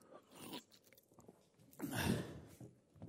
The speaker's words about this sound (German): Wasser, Wasser. Genau, man muss zwischendurch auch trinken, wenn man unterwegs ist.